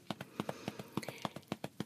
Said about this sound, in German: Leise geht das Klopfen übrigens auch. Also es muss nicht so sein, dass Sie es jetzt, wie jetzt gerade hören